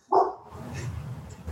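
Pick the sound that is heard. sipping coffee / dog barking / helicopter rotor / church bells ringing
dog barking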